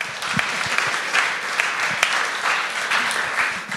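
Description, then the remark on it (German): A crowd at a political discussion applauds the bourgeois side steadily, a dense wash of many hands clapping at an even level throughout, with a few sharper individual claps standing out and no speech over it. “Damit auch einmal Applaus noch hier kurz für die bürgerliche Seite.”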